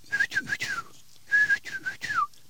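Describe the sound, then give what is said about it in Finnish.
A person whistles a short, clear birdlike phrase of sliding notes, pauses briefly, then repeats it, imitating a common rosefinch's song with no talking. “Esimerkiksi punavarpun, joka viheltää silleen”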